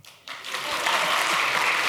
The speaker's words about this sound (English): Okay, I need a clap now.